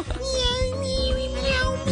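A cat meows in a drawn-out, wailing cry that sounds much like a crying baby, loud and sustained across the whole moment with a steady whining pitch.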